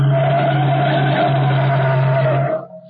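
A car's tires skid loudly to a stop as a car is forced to pull over to the curb, a sustained squeal lasting a couple of seconds under a low engine rumble before cutting off abruptly.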